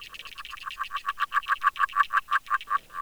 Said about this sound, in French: En cette fin de janvier, avec une température relativement douce, c'est une grenouille agile qui chante sous l'eau à partir de 3 heures du matin. Elle est accompagnée d'insectes aquatiques